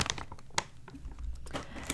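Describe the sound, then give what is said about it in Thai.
A snack bag being sealed: crinkling plastic and a quick run of small, sharp clicks from the zip-lock pressed shut, fairly quiet, with no voices. “อ่ะ ขอปิดอันนี้ก่อนเพราะว่ากลัวไม่กรอบนี่เราชอบบรรจุพัธุ์เขามากเลย เพราะว่าเขามีซิปล็อกไว้ให้ด้วย”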